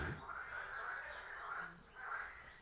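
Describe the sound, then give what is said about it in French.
A faint chorus of frogs croaking, with raspy calls swelling and fading in overlapping waves over a quiet outdoor background. “une grenouille, parce que là, ça y est, elles se sont réveillées.”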